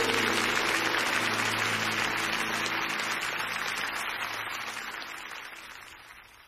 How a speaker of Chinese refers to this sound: 我拍手，将最大的荣耀归给他。